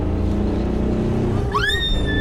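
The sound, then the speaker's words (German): A car engine drones steadily, then revs hard midway, its pitch climbing into a rising whine as the car accelerates to overtake a truck past heavy road rumble. “Der verdammte Laster nimmt uns unseren schönen Schwung. Wir überholen. Jetzt oder nie.”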